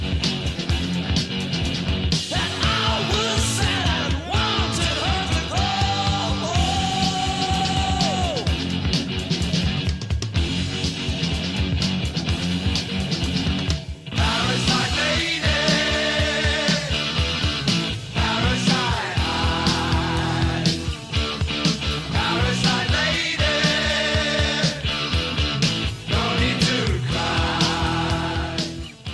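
A loud hard rock recording plays straight through: dense distorted guitars, pounding drums and bass at a steady driving tempo, with wailing sung or yelled vocal lines and bending guitar leads above.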